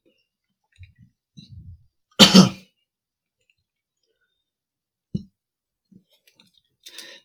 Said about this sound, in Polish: Teraz wezmę łyka wody.